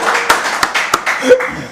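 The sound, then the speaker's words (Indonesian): A short burst of applause: hands clapping in a steady wash, with a few sharper, louder claps standing out and a brief voice or laugh mixed in near the end. “Tepuk tangan udah.”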